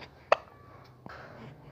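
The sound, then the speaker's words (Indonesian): A baby gives a sharp, sudden hiccup, followed about a second later by a softer second one, with no talking. “dadah dadah mana cekukannya dadah eh, selesai ya eh masih”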